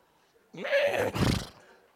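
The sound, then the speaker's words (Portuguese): A man's voice imitates a horse's neigh, a single loud whinny rising in pitch and then breaking into a rough, breathy snort for about a second before falling silent. “Eu vou dar uma relinchada aqui, porque daqui a pouco vão achar que eu sou um porco.”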